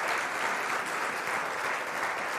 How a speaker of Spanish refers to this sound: Den un aplauso fuerte a Cristo.